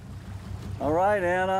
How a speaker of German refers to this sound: Festhalten, wir fahren jetzt los. Wir steuern aus der kleinen Hafenbucht aufs offene Meer hinaus.